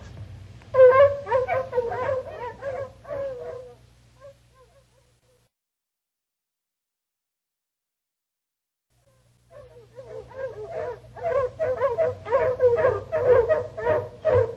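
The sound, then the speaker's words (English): Four hounds held in one harness by a slim boy bay on a scent trail in loud, overlapping bursts. The baying fades out after a few seconds, then comes a long silence before the chorus swells up again over a low hum. “Great Scott, Jarvis, you let that slim boy hold four hounds in his harness?”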